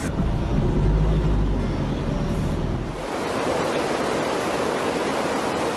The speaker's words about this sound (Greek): Ποτάμια λάσπης κατακλείζουν τους δρόμους. Τα ορμητικά νερά παρασύρουν ό,τι βρίσκουν μπροστά του. Οι δρόμοι έχουν μετατραπεί σε σαρωτικούς χυμάρου.